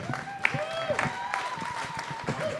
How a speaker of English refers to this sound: Lively, very lively. That's a great round of applause. That was more claps than you guys, yes.